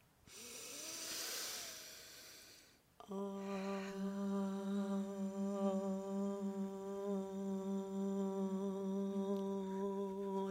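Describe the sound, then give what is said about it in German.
A long breath drawn in together, then voices chant a single low, steady Om as a greeting, the rich droning tone held evenly for about seven seconds without a break. “und mit diesem wunderschönen Om begrüßen wir auch alle unsere Zuhörer und Zuhörerinnen zu einer neuen Podcast-Folge”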